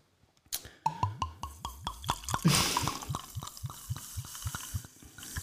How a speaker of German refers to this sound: Und, und fülle das Ganze, gieße das Ganze jetzt eben mit diesem roséfarbenen Tonic auf.